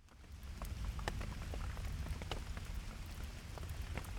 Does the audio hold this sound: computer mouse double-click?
no